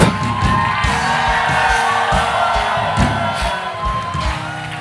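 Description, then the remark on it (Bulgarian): A church audience shouting and cheering together, a loud, sustained roar of many voices with rhythmic bursts and whoops, continuing for several seconds. “Имам ли пет човека в църква пробуждане днес, които могат да извигат.”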